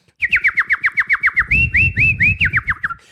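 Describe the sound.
Someone whistles an imitation of birdsong: about a dozen quick, swooping chirps in a steady rapid rhythm, loud, with a low rumbling murmur underneath partway through.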